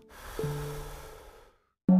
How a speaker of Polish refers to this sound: A teraz weź bardzo głęboki wdech i wstrzymaj go na 15 sekund. i wypuść powietrze.